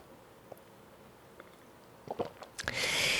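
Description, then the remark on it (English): A few faint clicks, then some wet mouth sounds leading into a brief, breathy slurping sip of a mimosa, fairly loud, with no talking. “Hold on, I need a sip of my mimosa.”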